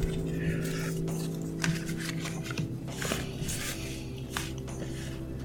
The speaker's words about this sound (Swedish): Blanda korten noga.